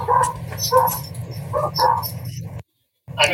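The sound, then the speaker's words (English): Several dogs bark and yip excitedly in quick, overlapping bursts, loud over a low rumbling hum, breaking off suddenly for a moment before the barking starts up again. “These dogs are going nuts.”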